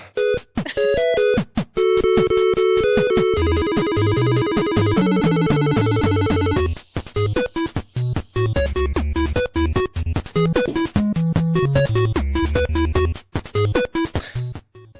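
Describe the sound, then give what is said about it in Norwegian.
Upbeat chiptune music from the video game Balloon Fight plays with square-wave melodies, bubbly arpeggios and a bouncing bass line, loud and continuous with brief pauses between phrases and no talking. “helt fantastisk soundtrack på dette spillet.”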